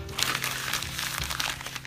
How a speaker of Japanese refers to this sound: シャクシャクシャーと丸めてギューッとしてゴミ箱にポイです。